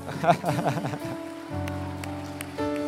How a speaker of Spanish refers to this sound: Le damos un aplauso de cariño